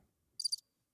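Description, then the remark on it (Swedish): A short burst of high, pulsing cricket chirps from a sound effect built into a portable mixer, a few rapid trills lasting a fraction of a second, crisp in otherwise near silence. “Ja, det är crickets. Syrsor.”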